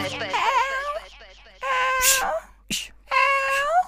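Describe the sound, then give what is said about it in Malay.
A person imitates a cat early in the morning, giving a few drawn-out, wavering meows in a high, whiny voice, fairly loud, with short pauses and a brief breathy burst between calls. “Tiba-tiba pagi-pagi begini ngiau-ngiau-ngiau meow, meow, meow.”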